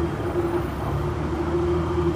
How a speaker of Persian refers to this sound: شیشه ها رو بخار گرفته بود و او به صدای دنده های اتوماتیک اتوبوس گوش میداد که یکی یکی جاشون با هم عوض می شد